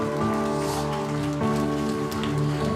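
An audience at a church service applauds in a dense, steady wash of clapping that holds at an even level throughout, with sustained musical tones humming underneath and no one speaking.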